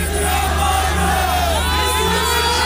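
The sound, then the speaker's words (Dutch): At a commemoration, a large crowd of people from the affected region shouts and chants together as a minister takes the stage, many voices overlapping in a loud, sustained roar with rising and falling yells. “Mensen uit de getroffen regio voelen zich vergeten en willen dat er meer aandacht gaat naar de slachtoffers en de gevolgen. En dus roepen ze dit.”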